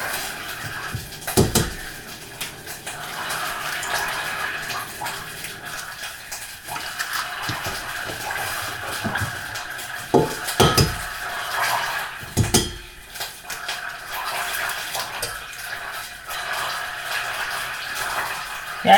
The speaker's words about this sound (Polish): Póki tłuszcz się roztapia, możemy powolutku przystąpić do wbijania jajek. Jajka wbijamy w całości, nie oddzielamy żółtek od białek.